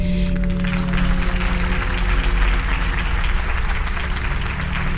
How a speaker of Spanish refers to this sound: Entonces, mi muerte se vio interrumpida por un alboroto de aplausos